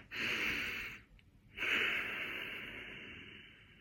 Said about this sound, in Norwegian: Og så skal vi sammen puste inn og ut.